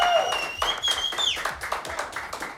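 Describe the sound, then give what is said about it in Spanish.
A crowd at a 15th-birthday celebration applauds with dense, steady clapping for a few seconds, while high, sliding whistle-like tones ring out above the claps early on. “Aplauso aquí, eso.”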